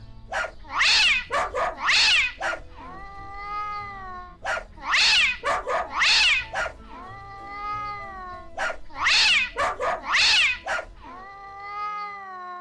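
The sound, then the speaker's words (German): Sharp, loud bark-like bursts from a dog named Synkopus in quick groups alternate with drawn-out, wavering yowls and hissing from a tomcat named Tritonus, repeating three times in a steady rhythmic pattern, without talking. “Oh, welchen Rhythmus haben da der Hund Synkopus und der Kater Tritonus gebellt und gefaucht.”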